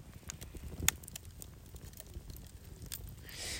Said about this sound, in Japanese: えー、さて今日は、えー、ちょっとね、焚き火をしながら、えー、配信 Now なんですけど、えー、夜中の今は1時45分ですね。この放送を聞く方は多分ね、あの、翌朝聞いてらっしゃる方が多いと思うので、何のこっちゃということかもしれないんですが、聞こえますかこのき火のパチパチという音。